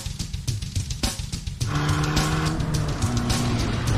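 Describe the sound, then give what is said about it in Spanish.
A new Abarth sports car with 180 horsepower and a changed exhaust roars loudly, rising into a sustained revving growl with a steady tonal drone. The exhaust note dominates throughout, with no talking. “¿Habéis escuchado cómo suena el escape?”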